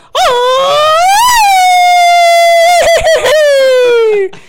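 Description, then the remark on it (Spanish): A voice imitates a police siren, one sustained loud wailing tone that rises, holds steady with a slight wobble, then slowly falls over about four seconds, alone. “La tercera es la policía.”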